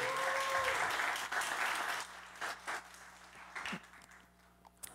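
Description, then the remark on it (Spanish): The Fe del Reino audience applauds the Lord, a dense burst of clapping with a brief cheer at the start, then it thins out over a few seconds into scattered, fading claps. “Démosle un aplauso al Señor.”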